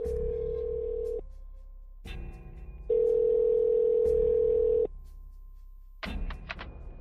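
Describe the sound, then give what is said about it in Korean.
An outgoing call to a friend's mobile phone: the ringback tone purrs through the earpiece in two long, steady tones separated by a pause, ending in a few clicks as the line picks up. “나는 미친 듯이 소리를 지르며 문에서 멀어졌고 다급히 전화를 꺼내 친구에게 전화를 걸었다.”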